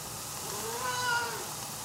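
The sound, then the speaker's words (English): A single drawn-out meow from a cat named Frida, fairly quiet and rising then falling in pitch, heard alone over a steady background hiss with no talking. “That's a cat, Frida. She loves rosettes.”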